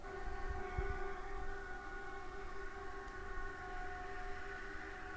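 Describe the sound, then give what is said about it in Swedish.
A Swedish civil defense warning siren holds a steady, droning multi-tone wail, fairly faint, with low rumbling background noise and no one speaking. “Om vi jämför med Hesa Fredrik som låter så här.”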